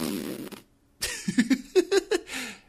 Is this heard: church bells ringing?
no